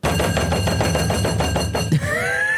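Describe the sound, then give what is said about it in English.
Rapid, loud banging knocks on a door, an imitation of a Hermes delivery driver knocking: a fast unbroken series of hits lasting about two seconds before stopping abruptly, followed by a faint ringing tone. “That's my impression of the Hermes driver, but it goes on for five for twenty five seconds longer.”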